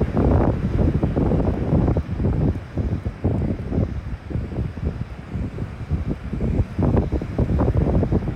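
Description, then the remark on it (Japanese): Steady, loud wind buffets the microphone while surf rumbles underneath at a beach, a continuous roaring wash of waves and gusts with no voices. “その方とあの行き過ぎたらねあの波の中に入りたいなと思っております。”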